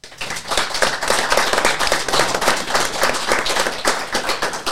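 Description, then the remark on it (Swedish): An audience gives itself a big round of applause at the close of an event, dense overlapping claps forming a steady, bright wash of sound that holds at an even, fairly loud level throughout, with no voices standing out. “Så jag tycker vi avrundar med att ni ger er själva en stor applåd.”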